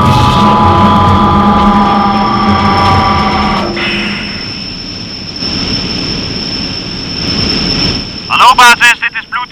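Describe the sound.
A helicopter drones loudly and steadily up close, its engine whine holding a constant pitch, with muffled voices and a brief burst of sharper noise near the end.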